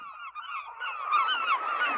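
seagulls crying

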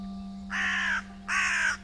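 crow cawing

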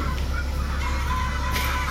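chicken clucking

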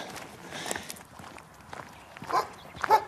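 farm dogs barking

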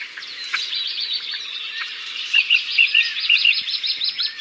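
small birds chirping

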